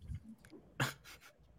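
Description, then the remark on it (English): Several pet dogs bark in a few quick, sharp bursts, somewhat muffled, with one louder bark followed by a couple of softer ones in close succession. “So, uh, now my dog's are going nuts.”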